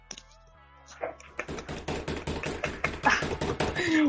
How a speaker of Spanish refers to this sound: pero oye, un, un redoble para la jefecita.